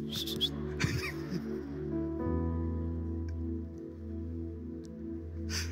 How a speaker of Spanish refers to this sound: Chiflando y aplaudiendo, muchachos.